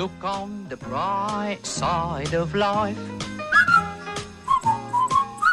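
Someone whistles a lively tune up close, the melody gliding up and down in short phrases with brief pauses, over a fuller harmonic backing early on.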